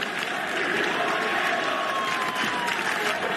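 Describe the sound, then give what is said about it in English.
The Oklahoma Sooners home crowd in Norman reacts after quarterback Spencer Rattler throws an interception. A large stadium crowd roars steadily, a dense, loud wash of voices and cheering that holds at the same level for a few seconds without letting up. “That was his home crowd.”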